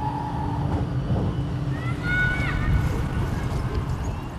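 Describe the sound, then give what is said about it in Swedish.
A commuter train arriving at Jordbro station, a suburb half an hour by train from central Stockholm, Sweden, rumbles steadily with a steady low hum, a brief whine early on and high metallic brake squeals as it slows to a stop. “Vi är på väg till Jordbro, där berättelsen börjar.”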